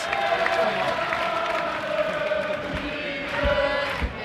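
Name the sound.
football stadium crowd chanting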